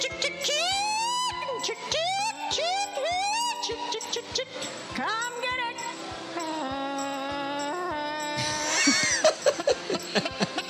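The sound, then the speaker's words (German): A contest caller at a chicken-calling competition imitates a chicken with a rapid run of squeaky, rising clucks and squawks, fairly loud, followed by drawn-out warbling calls and a noisier burst near the end. “Der eine ist irgendwie möglichst so zu klingen wie die Hühner.”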